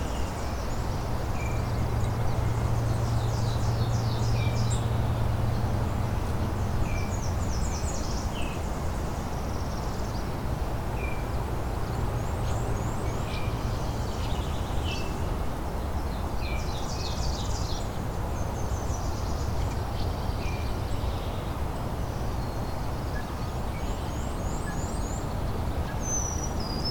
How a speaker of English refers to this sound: Blackburnian warbler again.